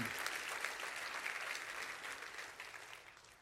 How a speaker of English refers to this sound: Come on, clap your hands.